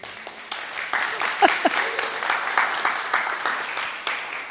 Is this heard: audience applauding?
yes